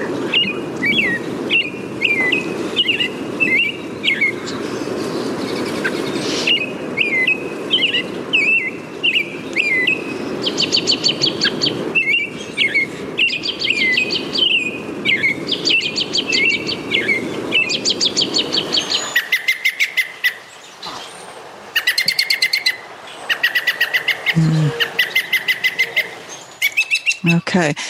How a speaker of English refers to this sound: Both males and females will give an urgent scolding call if they feel threatened near the nest. This recording starts out with the typical spring song of the American robin and is followed by the scolding of an adult male.